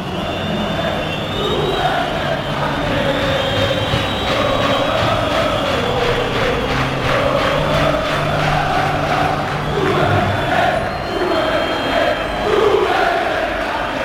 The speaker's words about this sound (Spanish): Pañuelos blancos en el Sánchez Pijuán. Gritos de fondo de Pepe Castro dimisión, Pepe Castro dimisión.